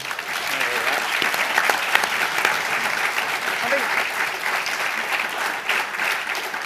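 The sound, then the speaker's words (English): Sustained round of applause from an audience in the room for a speaker, a dense, even wash of many hands clapping at steady loudness for several seconds, with faint murmurs mixed in. “you shouldn't just aim for a round of applause in the room, but uh, you, you, you, got one.”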